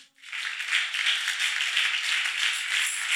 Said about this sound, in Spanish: Alguien dele un aplauso al Señor.